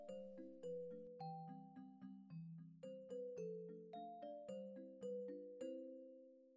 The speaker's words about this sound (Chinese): 大伙儿开心的站在翡翠城的大门前，按了几次门铃，叮当叮当叮咚叮咚叮咚叮咚。